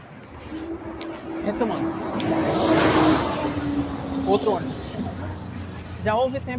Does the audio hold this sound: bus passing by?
yes